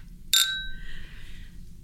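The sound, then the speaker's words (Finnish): A single bright clink of sparkling wine glasses in a toast, a sharp chime with a clear ringing tone that fades over about a second, heard alone with no talking. “Ja kilistään nyt vielä uudestaan”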